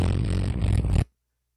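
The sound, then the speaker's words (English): A loud, buzzing raspberry blown with the lips, imitating a fart, held steadily for about a second and then cut off abruptly into silence. “All right, drum roll. Fart roll.”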